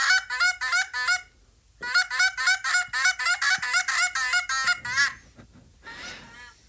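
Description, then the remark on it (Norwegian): Canada geese honk loudly and repeatedly as they land, played from a mobile phone app: a dense flurry of harsh two-note calls from several birds, pausing briefly before another burst, then fading into rustling and scattered calls. “Og så det neste da er eh, Når de lander, så lager de veldig mye lyd.”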